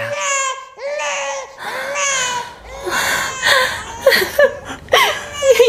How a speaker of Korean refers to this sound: 아이의 울음소리가 들려왔다.